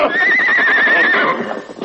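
A horse gives a loud, wavering neigh lasting about a second over quick galloping hoofbeats, with no talking.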